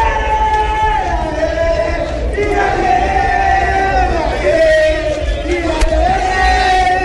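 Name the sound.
football fans chanting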